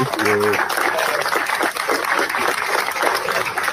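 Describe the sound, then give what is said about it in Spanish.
A steady wash of crowd applause fills the whole stretch, dense and fairly loud, with a brief tonal voice-like sound at the very start and murmuring beneath the clapping. “A todos ustedes quiero decirles que me den un aplauso.”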